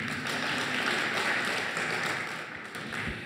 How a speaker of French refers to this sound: Merci pour vos applaudissements.